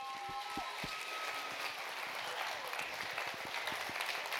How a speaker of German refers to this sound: Applaus.